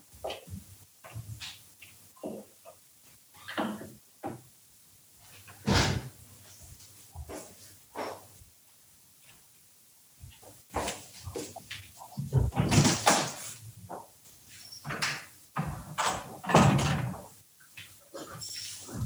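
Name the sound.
door opening and closing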